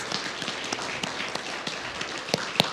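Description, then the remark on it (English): A crowd gives the crew of a Christmas program a round of applause, a steady, dense patter of many hands, with a few sharper, louder claps standing out near the end. No one speaks over it. “Would you give all of our crew a round of applause if you enjoyed that?”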